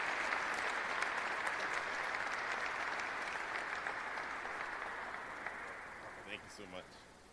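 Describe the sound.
An audience applauds in a dense, steady wash of clapping that holds for several seconds, then gradually thins and fades, with a voice briefly cutting in near the end.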